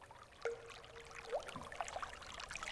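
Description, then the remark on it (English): A stream of water flows and trickles steadily through a canyon at a gentle, fairly quiet level, with a few faint whistle-like tones and chirps over the running water. “A deep valley, surrounded by lush green nature, steep cliffs, water.”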